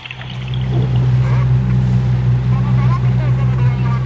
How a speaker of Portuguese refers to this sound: A bióloga Sabina Mendes explica que as morsas produzem estes sons através de bolsas de ar que têm na garganta para defenderem o território debaixo d'água.